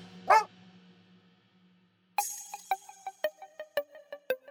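A dog gives one loud, sharp bark, then after a brief pause lets out a quick, steady string of short yapping barks, with no talking.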